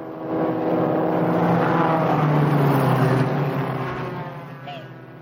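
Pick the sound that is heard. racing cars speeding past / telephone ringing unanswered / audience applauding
racing cars speeding past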